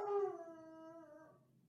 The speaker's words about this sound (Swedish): Jag gillar att min hund börjar yla nu också.